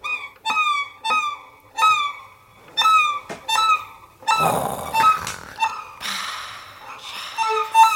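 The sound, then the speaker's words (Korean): A person mimics seagull calls with their voice: a quick run of short, bright, piercing cries repeated in a steady rhythm, then a rougher, noisier stretch of squawks and shrieks, fairly loud. “예, 예, 진짜 이거 진짜로 눈 감고 들으면 진짜 갈매기 소리 같아가지고 신기합니다.”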